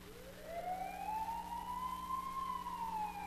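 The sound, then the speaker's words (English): An ambulance siren wails, its tone sweeping steadily upward and then holding high, loud and continuous over a low rumble of traffic, with no voices. “What do you think that is? An ambulance.”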